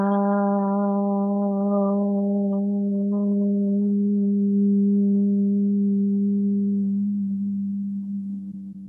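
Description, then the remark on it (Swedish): During a breathing exercise, a single voice holds a long, steady chanted Om, a low humming tone with rich overtones that slowly softens into a closed-mouth hum, sustained for nearly nine seconds before fading slightly at the end. “Det här var ett sätt att vibrera med ljud för att Eh, få en positiv effekt i kroppen.”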